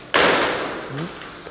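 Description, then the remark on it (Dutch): A single loud, sharp crack of a tree branch snapping as an elephant breaks it in an elephant house, with a brief splintering tail fading over about a second. “Dan breekt ze die tak.”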